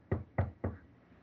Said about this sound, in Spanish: Y lo que me propuse ya a ignorarlo, me tocan ahora a mí la puerta.